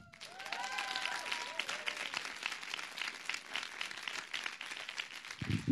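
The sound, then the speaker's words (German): A crowd applauds steadily with dense, continuous clapping for several seconds, a few whistles rising briefly at the start and a low thump near the end, applause given in thanks to the audience's missionary in Malawi. “Gebt dir mal einen Applaus.”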